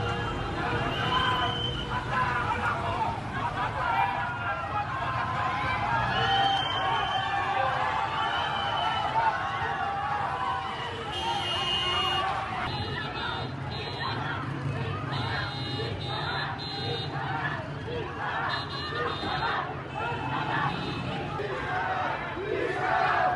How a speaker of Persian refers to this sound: جمعیت بزرگی در برابر بیمارستان کسرا جمع شدند. اعتراض مردمی با بوق میدون آرژانتین بیمارستان کسرا